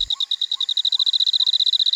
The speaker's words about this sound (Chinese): 他们去的温泉是一个建在山谷当中的很天然的场域，所以周边一直充斥着很多小动物的声音，像是日本树蛙和梅纹蟋蟀呀。它们的叫声本来就是一个很天然的音程，像这样。